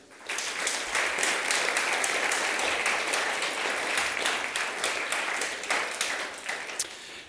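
An audience breaks into sustained applause, a dense, steady wash of many hands clapping at even loudness for several seconds with no voices over it.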